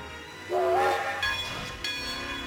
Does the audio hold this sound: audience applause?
no